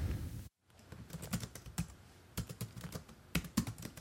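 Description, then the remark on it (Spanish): Typewriter keys clack in quick, uneven bursts as a letter is typed, with short pauses between strikes. No one speaks, and a brief silence comes just before the typing begins. “En el episodio de hoy, de hecho, nos llega una carta mecanografiada de la Universidad de Miskatonic en Arkham, Massachusetts.”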